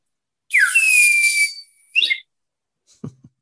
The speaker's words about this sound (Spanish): O sea, silbatos, eh, diferentes eh, instrumentos muy oriundos de su zona.